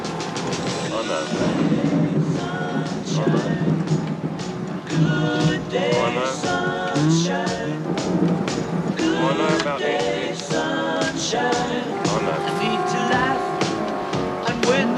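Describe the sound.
An upbeat, 1980s-styled cover of a sixties pop song, played over a film's opening as a radio DJ's pick, with a singing voice over full band accompaniment, loud and continuous from start to finish, with a bright, busy mix and steady rhythm.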